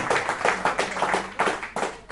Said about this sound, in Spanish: Dele aplauso, claro que sí. Amén.